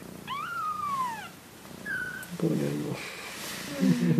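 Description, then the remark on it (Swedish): High, thin kitten squeaks rise and fall in a few short bursts, followed by some lower soft murmuring sounds and rustling. “No, de piper lite allihop.”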